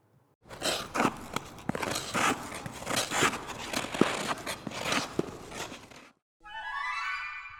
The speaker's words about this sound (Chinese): 你猜对了吗？这是溜冰的声音，ice skating。